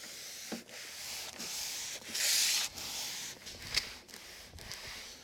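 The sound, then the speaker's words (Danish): A cloth rubs steadily over a sanded wooden garden table in repeated back-and-forth strokes, a soft swishing with brief pauses between passes, as a final coat of oil is worked in. No one speaks. “Så bliver jeg færdig med at oliere mit bord.”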